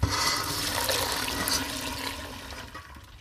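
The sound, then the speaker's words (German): A steady rush of water heated to 78 degrees, poured over malt in a sieve, splashes and gurgles continuously for a few seconds, fairly loud, easing off slightly toward the end, with no voices; it rinses the remaining sugar from the malt into a large pot below. “über alles, was jetzt noch im Sieb war, hat Jule jetzt das Wasser gegossen”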